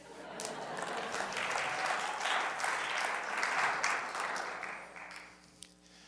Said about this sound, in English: There should be more clapping.